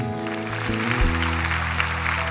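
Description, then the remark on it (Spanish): A church audience applauds with steady, dense clapping that fills the whole clip, while sustained low keyboard chords hold underneath and shift once partway through. “Pues no era para aplaudir todavía, pero, pero no, sí está bien.”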